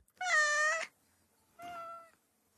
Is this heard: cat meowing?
yes